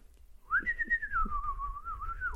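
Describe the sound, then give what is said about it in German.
Someone whistles in imitation of a bird in a toilet with stalls: one long, sustained, fairly loud note that starts after a brief pause, rises quickly, then drifts gently downward, over a low background rumble. “Ich so, wieso sind hier denn jetzt Vögel auf dem Klo?”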